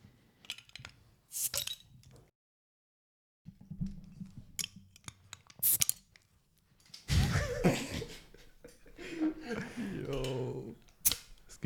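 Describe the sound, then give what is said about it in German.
Several sharp metallic clicks and pops of drink bottles being opened with a single bottle opener passed around, spaced a few seconds apart, with people talking and laughing in the later part. “Aber bevor wir das machen, müssen wir einmal unsere Getränke öffnen. Gut, dass wir nur einen Öffner haben.”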